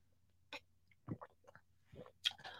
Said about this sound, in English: Sorry, I got to take a water break.